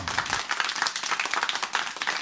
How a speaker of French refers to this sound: OK, les applaudissements, merci beaucoup.